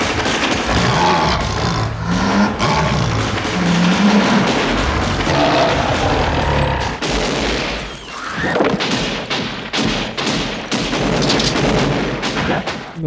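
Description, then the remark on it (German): A loud, dense barrage of film gunfire from many different weapons, with overlapping bursts, rapid automatic fire and booming shots continuing throughout, growing into a rapid, pulsing volley in the second half, as characters fire everything they have at a creature that broke through a wall. “Das Vieh ist durch die Wand gebrochen und die feuern alles ab, was sie drauf haben.”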